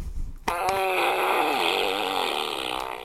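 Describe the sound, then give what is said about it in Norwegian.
A loud, sustained flatulent buzz from a large green squeezable toy being pressed, starting abruptly and wobbling in pitch for about two and a half seconds, alone with no talking. “hvor mange pump som skal til før promp”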